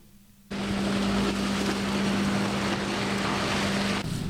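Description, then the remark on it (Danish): Loud, steady industrial machinery drone outdoors in front of a biogas plant, a broad roar with a constant low hum, starting abruptly and running unchanged for several seconds, with no one speaking. “Vi står her foran biogasanlægget”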